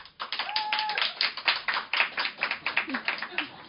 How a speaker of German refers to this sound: Also vielleicht einmal ein Applaus für Ehrlich.